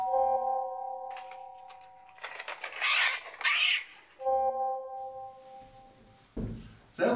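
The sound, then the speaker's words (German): A doorbell chime rings, sustained tones fading out, then rings again a few seconds later, with rustling and shuffling noises in between and a dull thump near the end. “Und wenn es jetzt klingelt, ist das”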